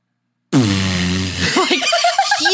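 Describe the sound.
A person imitates a huge fart with their voice: a loud, buzzing, low raspberry that sputters for about a second, then breaks into wobbly, rising squeaks and laughter-like chirps.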